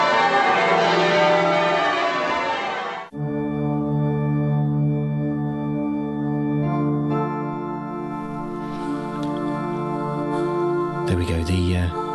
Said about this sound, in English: the Siren FM choir there, just uh, just warming up at the uh, at the cathedral, the sound of the cathedral bells.